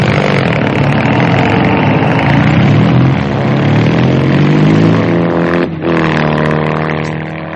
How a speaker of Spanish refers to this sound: Von Luger y el oficial de las SS suben al coche. Von Luger cruza una mirada con Ramsey antes de que el coche arranque.